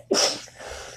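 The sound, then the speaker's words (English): A single abrupt sneeze bursts out, loud and hissy, then trails off into a breathy fade with no talking around it. “oh, bless you.”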